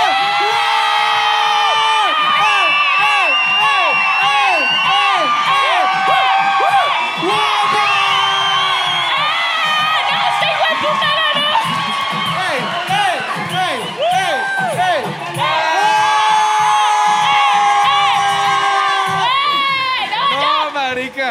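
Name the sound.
crowd cheering and shouting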